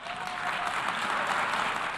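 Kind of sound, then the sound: crowd, applause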